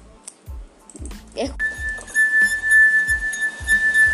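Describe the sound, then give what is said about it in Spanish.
A 12-year-old's finger circles the rim of a mini wine glass holding a little water, drawing out a steady, piercing ringing tone that swells and holds for a few seconds, with faint low thumps underneath. “Los elementos que voy a utilizar es una mini copa con un poquito de agua y mi elemento principal es el dedo.”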